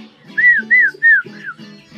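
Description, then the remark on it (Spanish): A pet parrot named Pepe whistles four loud, high, arching notes in quick succession, each rising and falling in pitch, over a faint low hum. “Tengo una gatica y un loro.”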